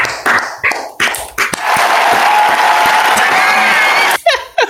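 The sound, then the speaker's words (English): A crowd bursts into loud, sustained cheering and applause for a returning champion, with whoops and shouts rising over dense clapping, after a few sharp opening claps; a voice cuts in at the end. “and the crowd is going wild for a returning champion to Thought Cops.”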